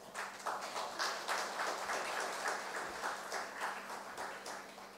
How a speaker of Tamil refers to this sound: இப்போது நீங்கள் இந்த பிஎஸ்ஜி மாணவர்கள் இதற்காக நீங்கள் ஒரு கைத்தட்டல் தட்டலாமே